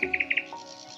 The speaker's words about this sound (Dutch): Dit is het geluid van de biesbos. Een waar vogelparadijs. Het is zes uur in de ochtend. Nog half donker. De vogels ontwaken. Meer dan 25 verschillende vogelsoorten in 3D-audio.